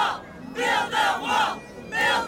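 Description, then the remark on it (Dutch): An ecstatic crowd in Bijl, Friesland, shouts and cheers in loud, rhythmic bursts, four swelling chant-like roars in quick succession with brief dips between them. “Ik ben op dit moment in Bijl en ja, de mensen zijn uitzinnig.”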